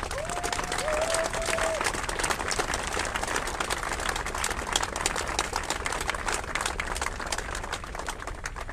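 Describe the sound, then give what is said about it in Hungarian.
A large audience at a Hungarian political event applauds Gergely Karácsony, dense clapping filling the whole stretch at an even, loud level, with a brief whistle-like tone rising out of the crowd near the start. “Karácsony Gergely ma bebizonyította, hogy számára a haza érdeke mindennél fontosabb, úgyhogy egy óriási tapsot kérek Karácsony Gergelynek.”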